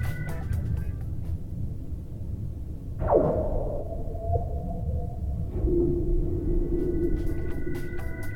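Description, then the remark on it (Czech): Ice cracking across a frozen lake in Sweden gives one sharp, eerie downward zing that fades into a lingering hum. A second, lower ring follows over a steady low rumble, with no voices. “tenhle týden poslouchám švédský praskající let.”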